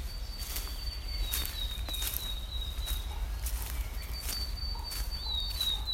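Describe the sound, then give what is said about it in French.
Steady crunching footsteps on dry, crackling dead autumn leaves keep a walking rhythm on a walk in a forest, while thin, high bird whistles sing above them in the fir trees. No one speaks. “En ce moment, on entend encore les feuilles mortes d'automne craquer et se froisser sous les pieds. Mais surtout, on entend les oiseaux chanter.”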